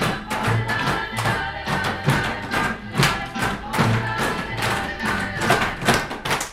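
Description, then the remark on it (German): Twenty third-grade children in a class at the Dellengarten primary school in Saarbrücken, Germany, clap and stamp along to upbeat music while sucking on lollipop COVID tests, loud and rhythmic, with steady thuds and sharp claps landing roughly every half second over a full, busy backing track. “20 Drittklässler und Drittklässlerinnen nuckeln an ihren Lolli-Tests und klatschen und stampfen zur Musik”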